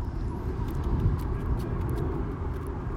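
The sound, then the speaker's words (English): A steady, low rumbling drone of an airplane passing overhead, continuous, with no distinct peaks or breaks over the few seconds. “oh, there's an airplane above us. You can hear it.”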